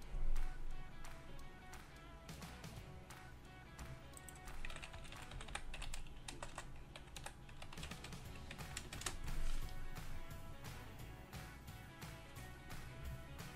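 Rapid keyboard typing as someone writes a reply to an Instagram message: bursts of crisp, irregular key clicks over a low, steady background, with no one talking.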